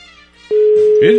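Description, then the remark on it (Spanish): A telephone rings on the line with a steady electronic tone that starts abruptly and holds, ringing again and again with the call going unanswered, while a voice speaks faintly over it. “Ya van cuatro veces que suena el teléfono y no contesta.”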